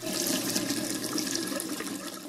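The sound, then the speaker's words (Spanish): Steady rushing water runs continuously from a shower in a hallway bathroom, with a broad hissing wash across the whole clip and no pauses or voices. “Es la regadera. Clarito se oye cómo está corriendo el agua.”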